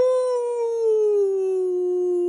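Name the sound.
wolf howling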